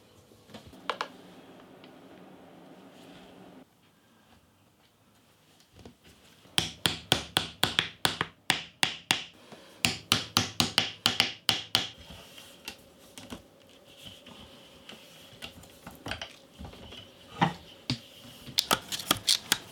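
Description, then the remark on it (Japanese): A craftsman makes a shamisen by hand: after a quiet, humming start, bursts of rapid wooden taps and clicks come in quick uneven runs, with brief pauses between, fairly loud, with no voices. “職人技が光る三味線作りのいい音それではお聴きください”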